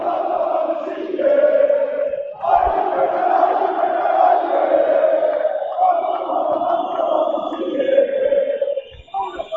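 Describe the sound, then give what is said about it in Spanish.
A large crowd of Fenerbahçe basketball fans chants and cheers loudly and continuously during a game against Baskonia near the end of the third quarter, the massed voices rising and falling in rhythmic waves with brief dips between swells. “Ahora la afición de Fenerbache que se le oye”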